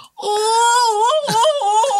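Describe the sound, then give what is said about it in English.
A person whines like a puppy: one loud, high-pitched, drawn-out whimpering wail that wavers and dips in pitch, breaking briefly near the end before trailing on, with no other sounds. “Ooh, you sound like a fucking puppy, bitch.”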